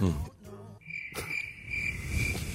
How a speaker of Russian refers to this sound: Звук сверчков нужен здесь.